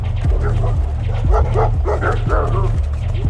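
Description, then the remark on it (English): Dogs bark and yip repeatedly in quick bursts over a constant low rumbling background, loud, with some whimpering mixed in. “When they got about halfway there, they could hear dogs barking.”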